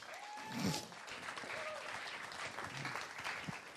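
An audience claps steadily for several seconds, a dense, even patter of many hands at a fairly quiet level, with a few brief whistles or cheers rising above it.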